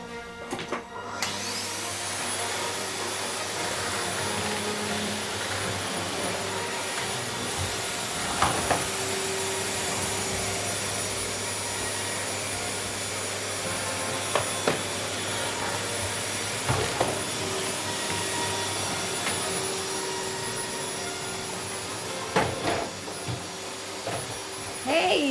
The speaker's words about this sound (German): musst du genau jetzt hier Staubsaugen? Ausgerechnet, wenn meine Lieblingsmusik im Radio kommt. Mach doch das Ding aus. Ich kann gar nichts mehr hören.